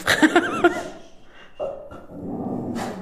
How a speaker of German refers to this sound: unser ähm, Podcast-Hund Levin stimmt dem nicht zu, scheinbar